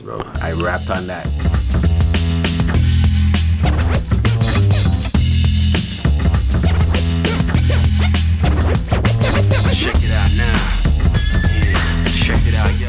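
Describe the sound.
A loud hip-hop beat with punchy drums and a deep bassline, overlaid with turntable scratching and a rapping voice, playing steadily throughout.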